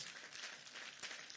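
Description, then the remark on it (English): A church audience claps together in a dense, steady burst of applause, many hands blending into a continuous bright patter with a few sharper peaks, no voices heard. “you have not learned your lesson about the clapping you nearly missed it”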